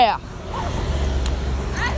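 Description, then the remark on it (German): A garbage truck idles in front of a school with a steady, deep engine rumble that fills the whole stretch, while brief voices sound at the start and end. “Genau, also das ist ja gerade hier die Müllabfuhr und so ein Zeug und die ganzen Kinder spielen hier gerade Fanger.”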